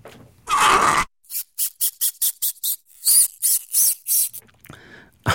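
Squeaky plastic creaking of a CD in its case: one long grinding creak, then a quick run of about a dozen short, high-pitched squeaks in an uneven rhythm.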